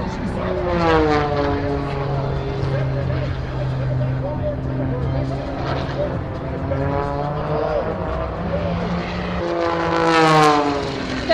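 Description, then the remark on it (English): An Edge 540 race plane's propeller engine roars in a loud, steady buzzing drone with rich harmonics, its pitch sliding up and down as it swoops and turns during an air race run, swelling again near the end. “The crowd went wild for fellow American as he flew his edge 540 to a 117.61 finish.”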